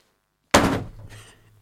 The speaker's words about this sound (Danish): Der er nu blevet slået op i ordbogen, som I kunne høre helt stille og roligt.